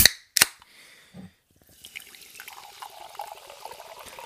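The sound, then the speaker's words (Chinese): Two sharp cracks and a short low gurgle, then a steady, moderately quiet fizzing of sparkling water: dense, fine crackling bubbles that continue to the end with no talking. “让我们去听一听气泡水的声音。”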